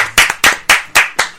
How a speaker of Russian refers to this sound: Похлопаем этому.